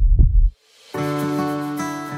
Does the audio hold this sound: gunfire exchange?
no